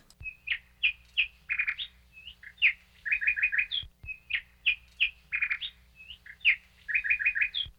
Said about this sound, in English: All right, did you guess that one? That is the nightingale. It's a small bird known for its powerful and beautiful song. It belongs to a species known as chats.